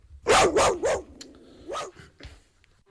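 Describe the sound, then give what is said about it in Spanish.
A dog barks three times in quick succession, loud, then lets out one more bark after a short pause. No one speaks. “Ha dicho mi perro.”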